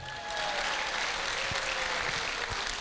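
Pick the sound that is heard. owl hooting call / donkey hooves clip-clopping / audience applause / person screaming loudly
audience applause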